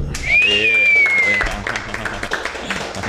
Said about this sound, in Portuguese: Boa, Uma salva de palmas